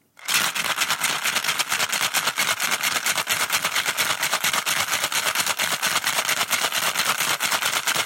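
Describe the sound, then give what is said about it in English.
Ice rattles hard and fast inside a cocktail shaker as a South Side cocktail is shaken for 15 seconds, a steady, dense clatter of rapid percussive knocks that keeps going without a break, loud. “And we're going to shake it for 15 seconds.”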